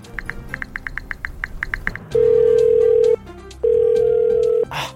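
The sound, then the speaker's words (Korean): Rapid dialing beeps tap out the phone number of the North American Aerospace Defense Command's Santa tracking line, then a steady tone sounds twice in long bursts, like a busy signal on the line, clear with no talking. “고객이 통화 중에 아! 소리 속이 탑니다.”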